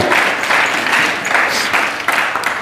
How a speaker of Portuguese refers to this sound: Só quem vive o melhor de Deus, aplauda Ele com força, vontade e fé, em nome de Jesus.